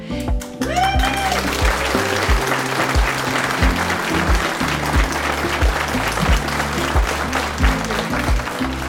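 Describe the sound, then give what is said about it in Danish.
Sustained, dense applause from an audience, many hands clapping steadily and loudly for the whole stretch, with a few indistinct voices mixed in underneath. The audience is at a crime fiction fair in Horsens, in the venue Snikkeriet. “Og som altså, man kan høre, så har vi et dejligt veloplagt publikum her i, øh, i snikkeriet, hvor vi holder til.”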